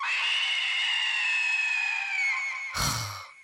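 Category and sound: human body sound, person screaming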